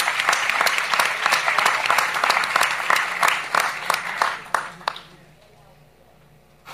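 An audience applauds to welcome Felipe Piña up to speak, a steady patter of many hands, loud and sustained for about five seconds, then thinning out to a few scattered claps and fading away.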